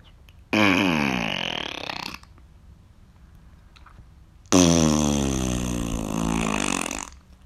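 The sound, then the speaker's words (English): A voice makes two long, loud, guttural groans imitating zombie noises, with spitting made with the tongue, and a short quiet pause between them. “I make noises of zombies and spit with my own tongue.”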